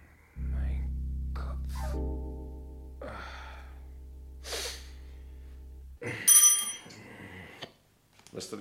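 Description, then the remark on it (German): A small bell, rung to summon a servant, rings briefly and brightly near the end, following a low steady hum with a few soft breaths and rustles. “haben geklingelt?”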